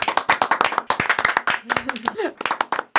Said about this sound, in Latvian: aplausi!